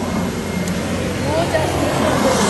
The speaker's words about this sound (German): Hört ihr, der Zug?